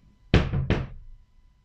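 Two solid knocks on a door, fairly loud, spaced by a brief pause and each trailing off quickly; no one speaks.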